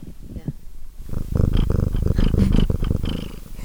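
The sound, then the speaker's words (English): A female cat named Francis purrs, a steady low rumble of rapid rhythmic pulses that starts softly and grows fuller after the first second, continuing without a break to the end. “That is the purring. Let's see if we can get her.”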